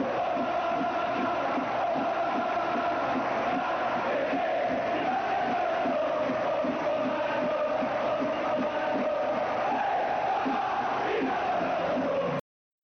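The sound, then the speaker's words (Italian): A huge football crowd of Neapolitan fans chants in unison, a loud, sustained sung roar with a steady rhythmic pulse that carries on unbroken for about twelve seconds before cutting off abruptly. “Bene, eh, rientriamo come avete avuto modo di sentire la voce dei napoletani perché Diego Armando era per loro forse più di qualsiasi altra cosa in questo mondo.”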